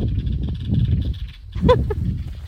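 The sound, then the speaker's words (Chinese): Many small birds call outdoors along a road cut through a mountain, faint high chirps repeating throughout over a steady low rumble, with one louder, harsher call standing out briefly near the end. “哎呀，这真的是小鸟很多。”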